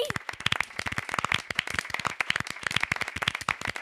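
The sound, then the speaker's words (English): An audience claps hands in a dense, steady burst of sharp, irregular claps, loud, continuing for a few seconds with no voices over it, clapping to show they believe in Coquís and to save a character called Cookie. “Everyone out in the audience, clap your hands if you believe in Coquís.”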